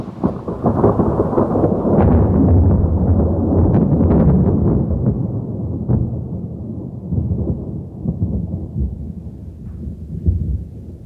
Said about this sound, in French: Dehors, à deux pas du village, éclate un violent coup de tonnerre, en même temps que le ciel se rompt pour libérer la pluie que nous attendons depuis des mois.